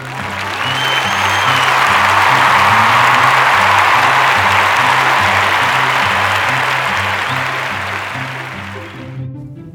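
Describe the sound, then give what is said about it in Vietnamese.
After a poem is read aloud to the end, a crowd bursts into loud, sustained applause and cheering for nearly ten seconds, a dense wash of clapping over a steady low musical pulse, before fading out abruptly at the end. “và cuối cùng tất cả mọi người đều vỗ tay hoan hô”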